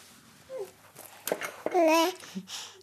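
A baby babbles and coos happily up close, with short bursts of high, sing-song vocal sounds rising and falling, one longer wavering squeal in the middle, and soft breaths between.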